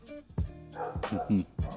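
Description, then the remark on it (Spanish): A person imitates a dog barking, giving several short, voiced woof-like bursts in quick succession, with no other sounds around. “O sea, yo no sé que si, que si yo empiezo a ladrar, como de los perros que pueden oír, perritos, este, yo no sé si estoy hablando con el perro, pero ¿qué tal que yo hago un mismo sonido durante muchas veces y el perro de repente se sienta?”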